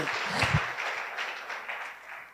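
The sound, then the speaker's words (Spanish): A church audience at Tabernáculo Ciudad Merliot claps in a steady, dense burst of applause at the end of a sermon, holding at an even level, with a brief low thump near the start and a slight fade toward the end. “Denle un fuerte aplauso a nuestro”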